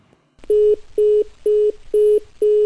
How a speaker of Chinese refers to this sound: 电话那边传来了忙音。